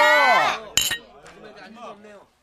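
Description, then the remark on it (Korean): Glasses clink together sharply once in a bright toast at a university freshman welcome party, right after a burst of several voices calling out together, followed by quieter chatter. “거기 지방방송 그만하고 자 다 같이 거국적으로 건배하겠습니다.”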